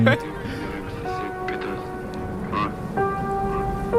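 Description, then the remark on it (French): Steady rain hisses throughout, with a low rumbling thunderstorm bed beneath sustained, droning musical tones that shift pitch a few times: a storm placed at the start of a song. “Euh, Qui met un orage au début de son”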